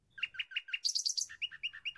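An apartment door's bird-chirp doorbell rings out: a quick, evenly spaced series of bright tweeting notes in three short phrases, clear, with no voices.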